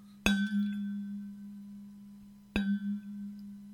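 A gong is struck twice, each hit a sharp metallic crash that settles into a long, steady low hum with bright ringing overtones; the second strike lands about two seconds after the first.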